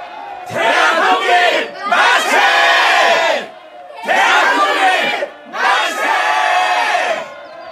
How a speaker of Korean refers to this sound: 수피아 여학교 학생들은 숭일학교 학생들을 만나 광주 제중원이 있는 큰 길로 나섰다. 시위 행렬은 만세를 외치면서 광주천으로 향했다.